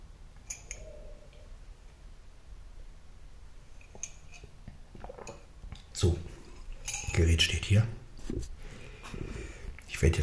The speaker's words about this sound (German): jetzt den, die Tasse waschen.